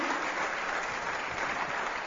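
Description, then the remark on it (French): A crowd applauds steadily to encourage community leaders, a dense wash of many hands clapping at once that stays even and sustained for the whole stretch, with no voices breaking through. “Est-ce que vous pouvez les encourager par vos applaudissements Merci beaucoup.”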